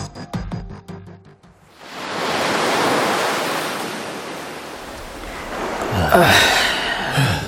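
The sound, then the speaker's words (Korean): Waves wash steadily onto a shore in Gangneung under a blustery sea wind, the surf rolling in a continuous roar that swells louder near the end, after a brief tonal musical opening. “바닷바람이 좋구먼. 우리 가족들하고 다 같이 바닷가에 놀러 오고 싶었는데 나 혼자 왔구먼.”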